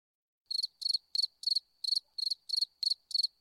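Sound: cricket chirping sound effect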